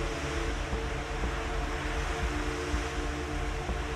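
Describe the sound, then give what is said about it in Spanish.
A steady, continuous wash of ocean surf rolls on without pause, with faint sustained musical tones humming beneath it and no voices present. “Y como las olas que una vez vinieron, ahora se van llevándose”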